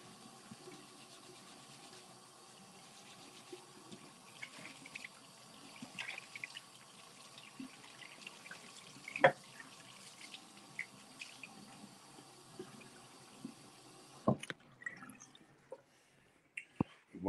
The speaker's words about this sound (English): What am I doing? What am I doing right now? I'm washing my hands.